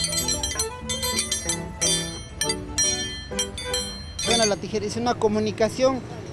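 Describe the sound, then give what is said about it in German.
Bright metallic blades of a pair of scissors clink in a quick, steady rhythm during an Andean scissor dance (Scherentanz), each strike ringing sharply. After a few seconds the clinking gives way to a person's voice. “Durch die Scheren kann man mit den Berggöttern der Anden kommunizieren.”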